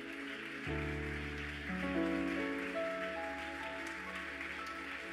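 A crowd gives a strong round of applause to the King, a dense patter of clapping, while sustained keyboard or organ chords swell underneath and hold to the end.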